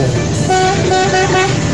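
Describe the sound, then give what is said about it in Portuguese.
Several car horns honk over steady traffic rumble, with overlapping sustained blasts starting and stopping in a busy, continuous jumble, fairly loud throughout. “Gostei desse buzinaço aí, hein, meu?”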